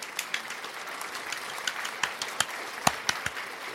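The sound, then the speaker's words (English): A canned applause sound effect played by clicking a clap button: a crowd clapping steadily for a few seconds, with dense overlapping claps and some sharper individual hits standing out, at moderate volume with no talking. “I don't have a woo button, but I do have a clap, so I'll click that.”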